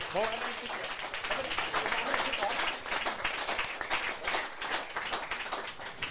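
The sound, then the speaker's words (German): Audience applause as an audience member is called forward to play along fills all six seconds, a dense, steady patter of many hands clapping at an even loudness, with a brief voice at the start and murmured voices mixed in underneath. “Ein Applaus, sie kommen nach vorne, spielt Jawohl.”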